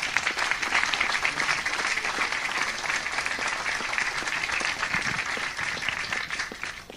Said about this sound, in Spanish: Creo que son los que se merecen también un, un fuertísimo aplauso, ¿no? De parte de todos nosotros.